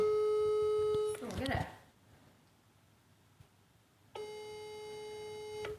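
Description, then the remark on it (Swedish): A phone call to a woman rings out unanswered: a steady, buzzy ringback tone sounds, a brief muffled voice interrupts, a couple of seconds of silence follow, then the tone returns. “Vi ringer Laila. Ja. Jag sätter på nu. Får se om hon svarar här.”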